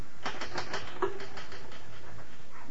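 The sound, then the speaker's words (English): A manual typewriter clatters with a quick, uneven burst of keystrikes, then the tapping continues more softly and sparsely before fading out. No voices are heard. “Finish typing it and I'll sign it.”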